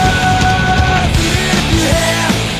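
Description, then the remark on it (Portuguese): Loud, dense grunge rock with a raw, screaming vocal held in long strained notes over heavy distorted guitars and drums, playing continuously for a few seconds. “Na gritaria desse cara aqui, ó,”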